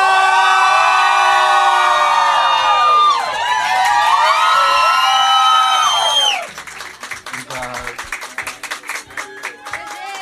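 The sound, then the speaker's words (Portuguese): A large audience screams and cheers loudly with many high-pitched shrieks layered together as a singer comes on stage, then the yelling gives way to dense applause and scattered clapping for the last few seconds. “Então eu quero ouvir o grito da galera”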